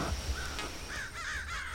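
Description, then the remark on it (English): A crow caws several times in quick succession, harsh rasping calls over a low rumble of background noise, with no one speaking. “Oh, there's a crow.”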